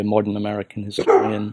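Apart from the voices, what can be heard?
dog barking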